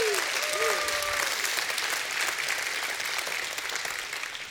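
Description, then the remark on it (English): A church audience bursts into sustained, dense applause for the church staff and volunteers, with a few raised voices and shouts of praise rising over the clapping early on before the noise holds steady and slowly eases. “And if you appreciate them, you ought to give God a hand clap and a shout of praise for them.”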